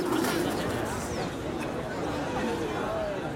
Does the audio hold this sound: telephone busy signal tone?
no